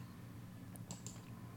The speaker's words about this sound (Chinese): 在翻页哈，等我一下。